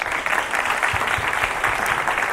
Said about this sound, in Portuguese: Por isso, uma salva de palmas para ela, por favor.